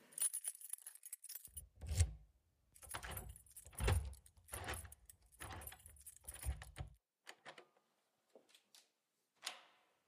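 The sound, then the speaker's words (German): Keys jangle and scrape in a run of metallic bursts as a key is worked into a lock and turned twice, at seven in the evening, followed by a few sparse clicks and a final rattle. “Es war sieben Uhr abends und der Schlüssel drehte sich zweimal im Schloss.”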